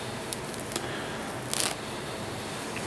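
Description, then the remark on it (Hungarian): A few quiet, crisp snips of scissors cutting an animal's fur at its neck, a couple of isolated clicks followed by a quick cluster, over a steady background hiss with no talking. “Nagyon kell vigyázni ott vele, mert ezzel az ollóval meg tudod szúrni majd.”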